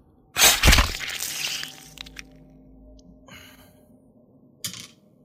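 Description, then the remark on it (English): Damage dice are rolled and clatter across a hard tabletop in a sharp burst of rattling clicks, tumbling briefly before settling, followed by a couple of faint taps and one final small click. “Roll your damage dice, please.”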